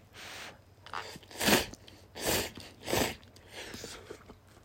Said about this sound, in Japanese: 僕ちょっと今日も反則してトッピングしちゃってですね、えー、散歩の焼き豚ラーメン食う時は必ずネギをマシマシで入れちゃうんですね。はい。はい。例によって咀嚼音がしますのでご注意ください。ではいただきます。